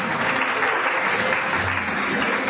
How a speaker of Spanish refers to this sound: Dale un fuerte aplauso, por favor.